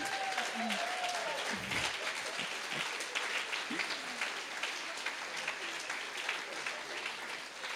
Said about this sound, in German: Okay, lass uns dem Herrn mal ein Klatschopfer geben. Ja?